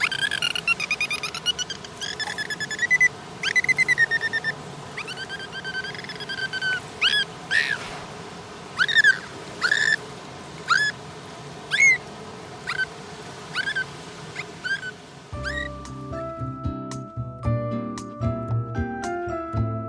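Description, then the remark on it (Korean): Dolphins whistle and squeal in a run of sharp, rising high-pitched calls, some repeated in quick bursts, over a low underwater hiss; a few seconds of music take over at the end. “지금 이 돌고래 글쎄요, 이 돌고래는 무슨 얘기를 하는 걸까요?”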